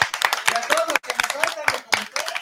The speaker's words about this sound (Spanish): claro, como no, que están en su casita la, Daniela Gutiérrez y Ulises Núñez, que también hay un saludo y un aplauso para ustedes también.